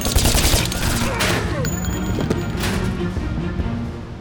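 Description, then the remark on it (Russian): A loud, chaotic burst of gunfire, with rapid overlapping shots cracking in a dense volley that rattles on for several seconds before thinning slightly toward the end. “Всем лежать! Только и успел закричать один из нападавших. Огонь!”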